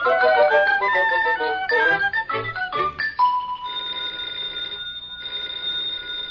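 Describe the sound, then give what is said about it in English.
A telephone bell rings with bright, trilling metallic tones, starting busy and jangly, then settling into sustained rings with a short break between them. The ringing is fairly loud and no one speaks. “the telephone's ringing.”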